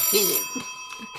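telephone ringing

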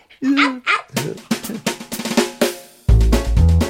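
pug dog barking

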